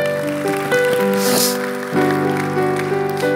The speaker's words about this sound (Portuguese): Uma salva de palmas aí para o irmão